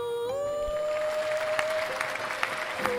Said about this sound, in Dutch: Graag een hartelijk applaus